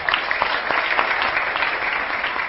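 Steady audience applause fills the moment, a dense, continuous patter of many hands clapping at an even, fairly loud level with no voices breaking through.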